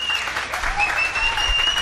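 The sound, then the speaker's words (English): Steady audience applause welcoming back guest Mark Murphy, a dense wash of many hands clapping at an even, sustained level for the whole stretch, with a faint high whistle-like tone running through it. “Big round of applause for Mark Murphy with us.”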